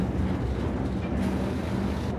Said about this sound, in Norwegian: men nå går toget. det er en smalspora bane? Den er smalspora. Den har eh, sporvidde på én meter.